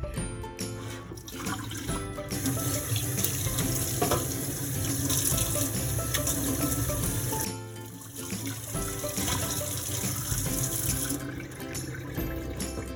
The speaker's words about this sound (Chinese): 锅底倒觉得好锃亮，好亮如新。其实没有怎么刷，就大热水冲一冲，然后拿菜花布稍微搅了一下，很干净哎，摸起来一点都不油，很干爽。